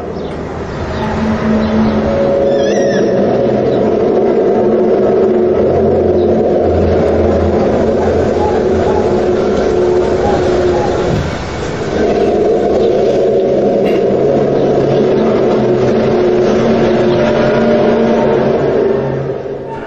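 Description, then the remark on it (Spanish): A deep, loud rumbling drone coming from underground, not from the sky, runs steadily for the whole stretch, layered with humming tones and a brief dip in intensity partway through, mysterious and machine-like, with no voices. “el sonido no viene del cielo, viene de la tierra y viene debajo de la tierra”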